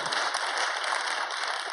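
An audience breaks into steady applause, a dense wash of many hands clapping at once, holding a fairly even loudness throughout with no voices standing out.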